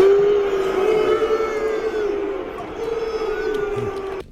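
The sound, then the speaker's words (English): A large crowd of soccer fans booing in one long, sustained, droning jeer, loud and steady throughout before cutting off abruptly at the end. “I mean, that's soccer fans booing somebody.”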